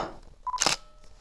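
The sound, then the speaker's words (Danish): A camera shutter fires once as a picture is taken inside a house where light streams in through the window, preceded by a brief electronic focus beep, then a sharp, bright mechanical snap; no one speaks. “Jeg forsøger lidt at få et billede af det hele her, hvor at lys altså strømmer ind af vinduet.”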